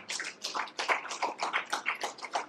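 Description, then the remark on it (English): A crowd applauds a pastor after a prayer, many hands clapping together in a dense, continuous wash of claps that holds at an even level throughout, with no voices over it. “Come on, let's give a round of applause,”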